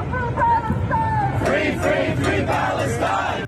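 A large crowd of New Yorkers chants and shouts in unison in Times Square, New York, voices rising in loud rhythmic bursts with overlapping yells, steady and dense throughout before cutting off abruptly.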